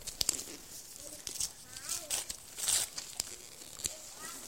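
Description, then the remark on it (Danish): Crinkling and tearing of gift wrapping paper in several quick, uneven bursts as it is pulled off a wrapped present, with faint voices murmuring in the background. “Skal jeg holde den? Så kan du trække den ovenud.”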